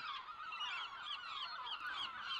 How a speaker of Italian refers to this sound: Poi le sterne gridarono ancora più eccitate.